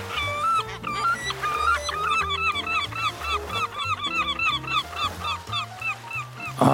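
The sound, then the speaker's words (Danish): A great black-backed gull flying overhead squawks loudly in a rapid series of harsh, repeated cries, continuous, with low droning tones running underneath. “Heldigvis så går der ikke særlig længe, så vågner faren igen, da en stor havmåge den flyver hen over ham og skratter højt.”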